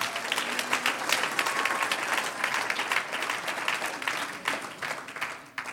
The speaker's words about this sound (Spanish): Un aplauso al Señor. Aleluya.